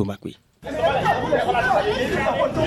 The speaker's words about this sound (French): une foule de clients à la recherche de bouteilles de gaz dans l'une des stations d'Agla. Les usagers se bousculent après une longue attente. Le déchargement d'un camion rempli de bouteilles est presque terminé.